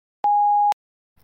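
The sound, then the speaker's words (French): A single voicemail beep: one steady, mid-pitched electronic tone lasting about half a second, starting and stopping abruptly with faint clicks, followed by near silence. “Merci de laisser votre message après le bip.”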